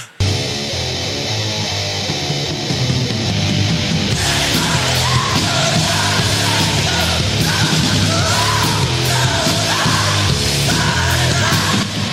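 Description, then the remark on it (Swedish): Harsh, guttural screamed vocals in the early extreme metal style once called gut puking, from before growling had a name, roar over loud, dense metal instrumentation, with distorted guitars and pounding drums filling the mix and intensifying after a few seconds. “kallade det för gut puking, för de visste inte riktigt vad de skulle kalla det.”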